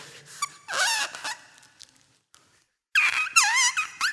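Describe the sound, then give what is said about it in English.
A squeaky, buzzing whistle blown through a paper wrapper sounds in two wavering, pitch-sliding bursts separated by a pause of near silence, with no talking. “He would take the paper and he'd he'd do hymns with it.”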